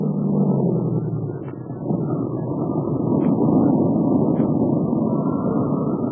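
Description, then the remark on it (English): A small airplane engine drones steadily and loudly throughout in flight, a dense, muffled low roar with slight rises and dips in intensity; the motor is not running clear. “Uh, if this motor would clear up, I could have fun, but not this way.”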